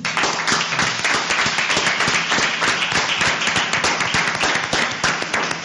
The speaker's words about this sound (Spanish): Así que yo les voy a pedir a todos los que están en la sala una fuerte ovación porque se lo han merecido, por favor.